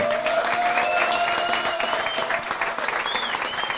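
An audience applauds loudly and steadily after being asked for a thunder of applause, dense clapping for several seconds, with a few whistles rising above it.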